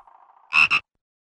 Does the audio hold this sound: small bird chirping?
no